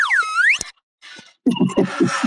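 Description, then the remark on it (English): A comical clown sound effect played from a soundboard: a loud, high squeaky tone swoops down and back up, then after a brief pause a quick run of bouncy, honking pulses follows. No voices. “I don't know what um, half these sounds on the soundboard do, honestly. What's the clown?”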